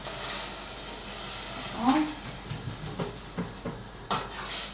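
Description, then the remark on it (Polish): About half a glass of water poured into a hot pan of chanterelle mushrooms, so they can braise a while longer, sets off a loud, steady hiss of steam, broken by a brief squealing tone, a few light clinks, and short bursts of harsher sizzle near the end. “Dodam do nich teraz troszeczkę wody, mniej więcej pół szklanki, żeby mogło się jeszcze chwilę dusić.”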